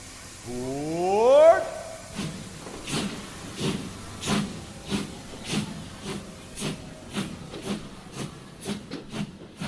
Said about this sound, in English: Your attention, please. The Walt Disney World Railroad now boarding for a scenic trip around the Magic Kingdom.